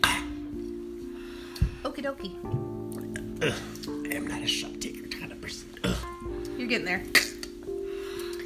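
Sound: shot glasses clinking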